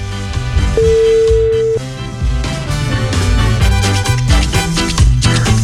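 A single steady telephone ringing tone sounds for about a second as a phone call is placed in the morning, over loud, busy background music, which continues after the tone stops.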